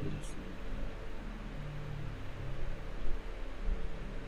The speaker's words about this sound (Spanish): Creo que si gustan puedo apagar el ventilador y me la aguanto así con el calor que hace.